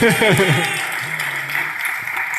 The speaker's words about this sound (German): Also vielen Dank für den netten Applaus.